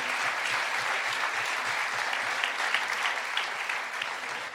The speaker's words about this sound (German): Komm mal nach vorne. Ein Applaus für, für den jungen Herrn mit der Mütze. Ersten Freiwilligen.